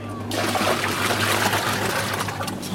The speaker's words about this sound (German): Mehrere Eimer mit geretteten Fischen werden in den Sauerstoffbehälter geleert